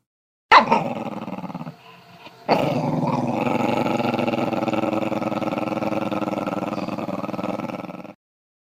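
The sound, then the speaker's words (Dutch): A dog growls angrily and loudly: a short snarl, a brief pause, then a long, sustained, rumbling growl that holds steady for several seconds before cutting off. “En de boze grom.”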